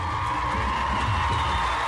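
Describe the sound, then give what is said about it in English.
A large audience applauds thunderously in a dense, continuous roar as actors take their bow, with heavy foot stamping thumping underneath and whistles and whoops rising above it. No one speaks. “The applause is thunderous. People are stamping their feet, whistling.”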